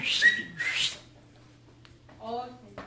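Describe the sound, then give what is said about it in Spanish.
A person whistles a short, breathy call, as if summoning someone, followed by airy rasping bursts and a brief voiced sound close to the microphone. “El que oyera el chiflido, córrele.”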